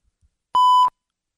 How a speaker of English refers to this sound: What was that beep noise?